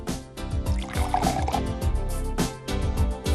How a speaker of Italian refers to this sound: Il sommelier procede all'assaggio e al servizio dello spumante nelle flute, dove il perlage si libera con le sue eleganti bollicine.